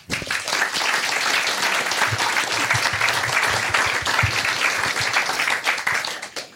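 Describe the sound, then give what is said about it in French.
A steady burst of applause, dense and fairly loud, with many overlapping claps running for several seconds before tapering off at the end. “Et je crois que ça s'applaudit. D'ailleurs, je vais le faire.”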